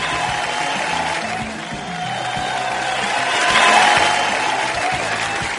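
Sustained, dense applause from a crowd, a steady wash of clapping that swells to a louder peak partway through before settling again, with no voices standing out.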